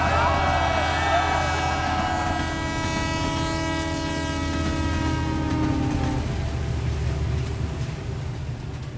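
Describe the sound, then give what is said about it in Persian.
A loud, sustained metallic screech of train brakes, pulled by a passenger at night in the desert, grinds against the rails over a heavy rumble, its shrill tones sliding gradually lower and cutting out near the end as the rumbling continues. “خسرو که آشفته شده بود در بین مشتلگت ها ترمز قطار را کشید”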